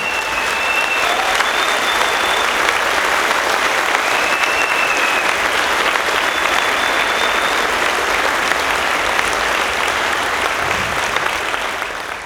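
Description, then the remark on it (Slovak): Sustained applause from a large audience in honor of all mothers, dense and steady clapping that holds at an even, loud level for about twelve seconds before easing slightly at the end. “Tak podľa mňa jeden obrovský potlesk všetkým maminám.”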